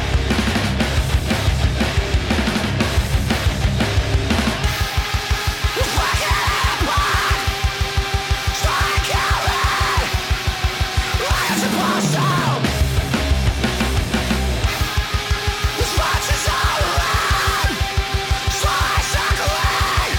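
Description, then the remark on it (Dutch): Loud, hard live band music with a dense distorted wall of guitars, fast pounding drums and shouted, yelling vocals, played continuously and at full volume throughout. “Ze spelen zoiets, een mix van, ik ga het gewoon opzetten en dan, uh, ja.”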